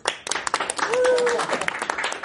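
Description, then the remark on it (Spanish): An audience applauds steadily, with many overlapping claps forming a dense, irregular patter. Partway through, a brief sustained voice or cheer rises above the clapping. “Y con el mismo aplauso recibimos también sí, venga, yo les traigo el siguiente regalo.”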